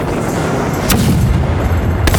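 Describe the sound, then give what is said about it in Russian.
Heavy naval cannon fire from ships firing on the Turkish flagship in a sea battle booms over a dense, rumbling battle din, with two sharp blasts cutting through around the first and second seconds amid continuous low roar and crackle. “Прикажите направить весь огонь на турецкий флагман!”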